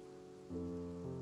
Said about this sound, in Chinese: 真的很讨厌下雨天，但是我挺喜欢雨声的，就像你一样的陪伴在我的身边。